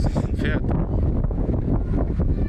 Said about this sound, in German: Ist ein bisschen windig gerade.